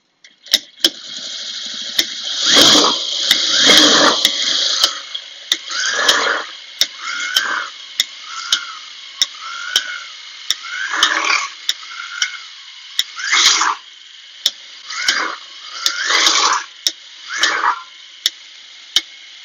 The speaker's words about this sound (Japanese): ちょっとハードめなね、ミシン音が入ってしまうかもしれないんで、これでちょっと一旦やめようかと思います。